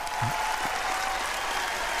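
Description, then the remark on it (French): A crowd claps steadily, producing a dense, even wash of applause that stays fairly loud and unbroken for a couple of seconds, with no voices standing out. “Ça, me tente pas de me faire applaudir pour ça.”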